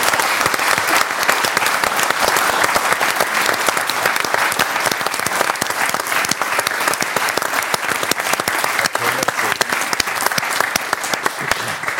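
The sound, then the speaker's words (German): Sustained audience applause as a sex therapist guest is welcomed, a dense steady patter of many hands clapping at an even loudness for the full twelve seconds, with no voices rising above it. “Ähm, wir haben Applaus.”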